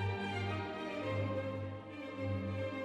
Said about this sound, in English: Hands can do incredible things. This is the sound of 326 hands playing Mozart.